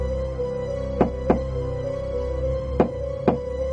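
Knocking on the door of a room: two quick raps, a pause, then two more, sharp, over a steady low electrical hum with no voices.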